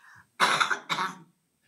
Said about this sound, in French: alors excusez-moi, je sors de maladie et je tousse.